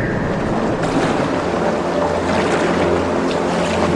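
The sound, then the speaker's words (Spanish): A boat moves steadily across the open sea, with a continuous low rumble and broad washing surf of waves around it, plus some wind gusting at the microphone. No one speaks. “Un tiempo en que la luna estaba pegadita a la Tierra en las noches, los amigos se reunían para salir a pasear por el mar en una barca.”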